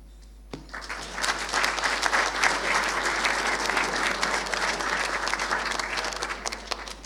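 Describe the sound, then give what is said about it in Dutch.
Sustained audience applause at a council meeting, after the announcement that new aldermen were appointed by vote and before their swearing-in, starts abruptly and continues steadily, a dense wash of many hands clapping at an even loudness with no voices over it. “Dan eh, na dit applaus eh, komt dus de eetaflegging.”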